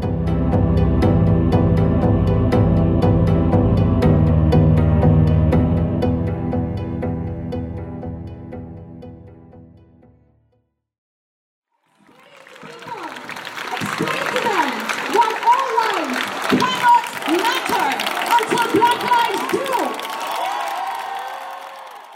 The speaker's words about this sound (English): That's the sound of rival protesters in Valletta on Monday night. One group represented the Black Lives Matter movement. The second held opposing views about whether African migrants should be allowed disembark on the islands.